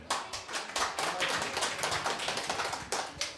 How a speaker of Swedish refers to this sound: en liten applåd här